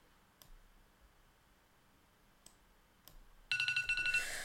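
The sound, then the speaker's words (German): A few faint ticks and clicks, then an electronic timer alarm abruptly starts ringing, loud and high-pitched with a rapid pulsing beep-like trill that continues to the end. “Okay. Der Timer ist.”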